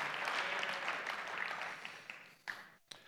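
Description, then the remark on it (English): Steady audience applause for marathon runners during a sermon, a dense crackle of many hands clapping that gradually thins and fades, ending with a few scattered late claps. “Please give these people a round of applause.”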